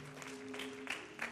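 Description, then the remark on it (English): A short stretch of audience applause for the praise singers at an evening service, a dense patter of clapping with a few louder swells, over a faint steady low hum. “Well, let's give the um, praise singers a nice round of applause for what they did tonight, too.”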